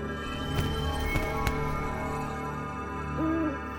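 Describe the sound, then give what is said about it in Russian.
A white owl flying overhead above a street hoots once near the end, a short, wavering call over a steady low background hum, with a few soft knocking sounds earlier and no one speaking. “Белая сова летала надо мной, пока я медленно шагала по улице,”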